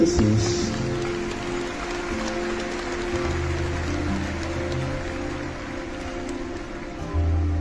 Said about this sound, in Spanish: Esos aplausos van llenos de heridas, Señor. Y de lágrimas. Pero sobre todo de felicidad y de ternura.